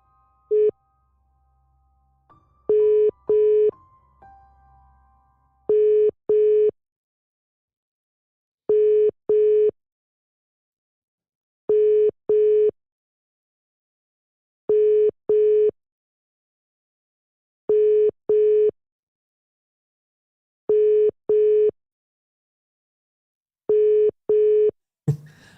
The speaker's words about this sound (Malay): Saya cuba untuk call dia sekejap Call using WhatsApp